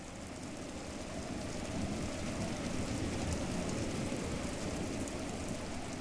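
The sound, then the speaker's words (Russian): Steady rain falls in the town of Zurbagan, a dense, continuous hiss and patter with a low rumble underneath, even and unbroken throughout with no voices. “Когда это было решено им в пользу одного из кабаков Зурбагана, Бартон встал и вышел под дождь.”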